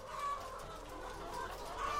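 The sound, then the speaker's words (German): Laying hens clucking steadily at moderate volume, a continuous murmur of overlapping clucks and soft cackles from a flock, with a couple of brief sharper calls standing out. “Bei Legehennen wurde das Effizienzprinzip auf die Spitze getrieben.”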